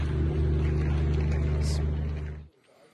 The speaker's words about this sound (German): Das ist ein Brummen, was uns hier die ganze Zeit irritiert weiß nicht, ob man das hört, da steht ein Generator.